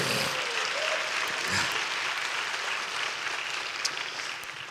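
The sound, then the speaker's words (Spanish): An audience breaks into loud, sustained applause for the Lord Jesus Christ, dense clapping filling the whole stretch at steady volume, with a few faint cheers or whistles rising briefly above it. “Ahora sí, ya, ya, denle un fuerte aplauso al Señor Jesucristo.”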